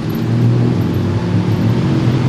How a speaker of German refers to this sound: So ja, Bangkok hat wohl den schlimmsten Straßenverkehr der Welt und deswegen haben wir noch die Motorradtaxis.